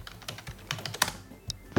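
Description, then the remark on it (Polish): Quick, irregular clicks of typing a word into Notepad on an eight-dot braille keyboard, a run of about ten crisp keypresses ending on a slightly louder thump, with no voices. “Piszę sobie słowo, no powiedzmy, Wszystko działa.”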